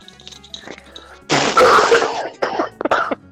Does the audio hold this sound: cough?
yes